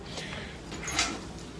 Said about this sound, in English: sorry about the side noise there, uh, rearranging a room there, sliding chairs and stuff.